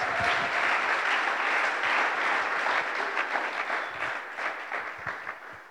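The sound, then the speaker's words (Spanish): An audience applauds steadily, a dense wash of many hands clapping at a loud, even level that begins to thin and turn more scattered toward the end. “Podemos darles un fuerte aplauso a ellos.”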